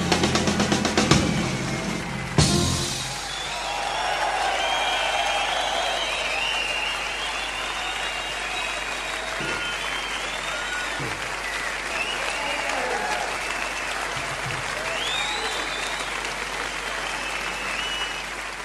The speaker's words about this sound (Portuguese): Pois, no fim das contas, é assim que morre a liberdade. em meio a estrondosos aplausos.